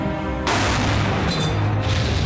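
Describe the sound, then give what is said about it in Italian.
A sudden, heavy air-strike explosion bursts in after a low hum, followed by a loud, sustained roaring rumble with crackling texture that continues to the end. No one speaks. “Ci sono molti attacchi aerei oggi, vero?”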